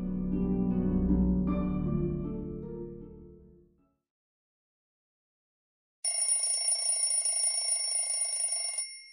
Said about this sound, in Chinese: 早上被闹钟吵醒，我睁开眼睛